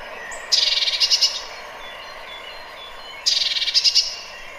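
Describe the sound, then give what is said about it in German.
A bird at a feeding station gives two bursts of rapid, high chattering calls, each lasting under a second, separated by a short pause, a sound made there when getting a little agitated. The calls are fairly loud over a quiet, faintly noisy background. “das machen die oft an den Futterstellen, dieses Geräusch.”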